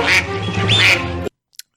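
A loud, nasal duck quack rings out, a raspy drawn-out call lasting just over a second, then cuts off into silence broken only by a tiny faint click.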